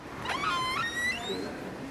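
A door in Beethoven's birth house on the Bonngasse creaks open with a drawn-out, wavering squeak that slides up in pitch over about a second, then fades into a low rumble and faint background noise.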